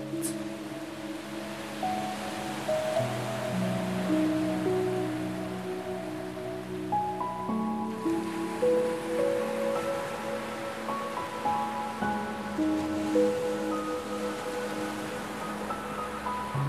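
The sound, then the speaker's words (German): Steady ocean surf washes onto the beach of a tropical island in the background, a soft continuous rush with gentle swells, layered under calm sustained musical tones that drift and change slowly. No one speaks. “Lauschst dem entspannenden Wellenrauschen und lässt deinen Blick über das unsagbar weite Meer schweifen.”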